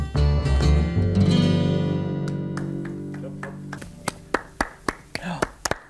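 A sustained musical chord rings and slowly fades, then a handful of sharp, scattered hand claps break out near the end, sparse and close rather than a full crowd.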